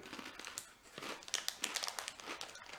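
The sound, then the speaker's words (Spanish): A snack bag crinkles in a steady run of irregular crackles and rustles as someone eats conchitas, with no voices over it. “Andas bien monchoso, güey. No comiendo aquí, está viendo, comiendo conchitas”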